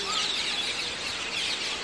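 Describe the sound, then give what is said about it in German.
A dense chorus of shrill, overlapping screeches from a flock of parakeets, many calling at once without pause, fairly loud and continuous, as hundreds of them gather in the evening on a shared roost tree in a town centre. “Ja, also man hat sich schon so einiges zu erzählen als äh, Sittich-Community nach einem Tag im Schlosspark.”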